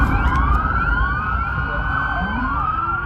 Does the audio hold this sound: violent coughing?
no